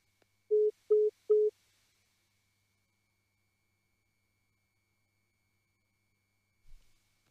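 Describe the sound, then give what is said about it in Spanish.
Three short, steady electronic beeps of a phone line's busy tone sound in quick, even succession as a phone conversation is cut off, apparently by an incoming call, followed by a long stretch of silence and a faint low thump near the end. “pasó algo con el teléfono del Sí, algo, aparentemente ingresó una llamada, algo así, y nos, nos, nos privó de seguir conversando con él.”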